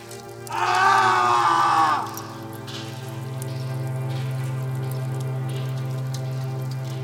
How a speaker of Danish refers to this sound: Flammer, der blegt gnistrer ved Jonathans fødder